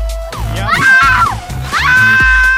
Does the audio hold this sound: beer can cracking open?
no